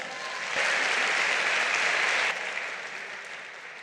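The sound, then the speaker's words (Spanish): An audience breaks into steady applause, a dense wash of many hands clapping that swells quickly, holds strong for a couple of seconds, then tapers off gradually. “Un fuerte aplauso.”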